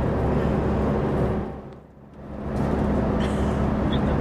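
Steady low engine drone and road rumble fill the cab of a semi-trailer truck on the road, dipping briefly quieter midway before building back up, like the truck shifting and accelerating.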